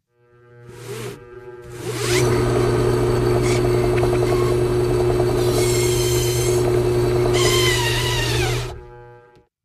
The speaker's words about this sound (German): Jetzt kommen äh, zwei Bohrer, die, von denen du vielleicht einen, einen Bohrer gehört hast. Ähm, hier kommt der erste Bohrer. Und hier kommt der zweite Bohrer.